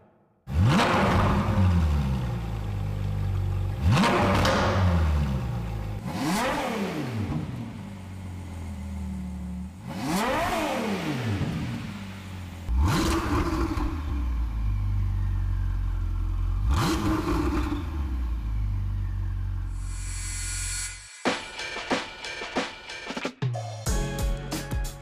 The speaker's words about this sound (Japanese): 高音の澄んだエンジン音が魅力だと言われるフェラーリ大変貴重なプレミアムカーのサウンドを聴き比べてもらいました